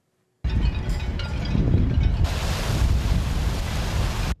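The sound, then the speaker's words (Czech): Strong, cold wind roars steadily on the shore of Lake Lipno, Czech Republic, buffeting the microphone with a dense, rumbling rush that swells slightly midway and continues without pause. No voices are heard. “Na břehu Lipna fouká silný studený vítr.”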